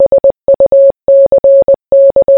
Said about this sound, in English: Good luck decoding that, by the way. That was Morse code.